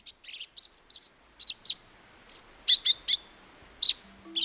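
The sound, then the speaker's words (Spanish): A thick-billed euphonia calling in a quick series of sharp, high chirps and short buzzy notes, repeated about a dozen times with uneven spacing, with no voices present. “Mientras tanto, la eufonia se queda a la espera, tal vez emitiendo una que otra falsa alarma mientras otros hacen el trabajo sucio.”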